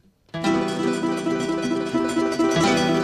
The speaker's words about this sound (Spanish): Se trata de un coro de voces infantiles que son los niños cantores de la Victoria, que es un grupo de 25 niños que proceden de la Victoria en el estado de, Aragua.